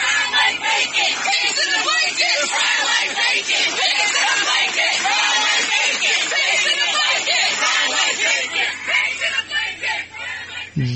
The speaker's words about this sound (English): Yeah, that okay. That's that's what they're saying. Uh, they're they're yelling. It's not just a calm, peaceful statement. They're, yeah, they're yelling.